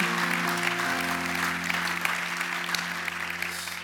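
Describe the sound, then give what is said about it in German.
Steady applause from an audience in Konstanz, sent to all the connected locations, a dense crackle of many hands clapping at an even loudness throughout, with a low sustained musical tone humming underneath. “Können wir einen riesen Applaus geben von Konstanz in alle eure Richtungen.”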